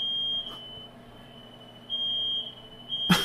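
A smoke alarm sounds a steady, piercing high-pitched tone that runs throughout, dipping quieter midway before swelling back. A brief noisy burst cuts in at the very end, and nobody speaks.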